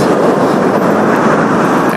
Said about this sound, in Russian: Вот мы сейчас стоим под коммунальным мостом. И сейчас, когда поедут машины, можно будет... Вот, можно слышать этот гул.